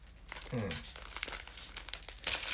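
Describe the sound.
A small wrapped packet of mini shikishi cards, which turn out to show Poppin'Party characters, is torn open, its plastic wrapper crinkling and rustling in bursts that grow louder toward the end, with a brief murmur of a voice early on.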